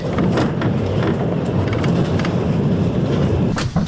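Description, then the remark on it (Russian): Continuous low rumble and rattling clatter of a passenger train at the station platform in frontline Kramatorsk, with scattered metallic clicks and knocks over a steady, loud background hum and no voices. “При фронтовом Краматорске у поездной бригады есть 30 минут, чтобы навести порядок в вагоне, и рейс отправляется обратно.”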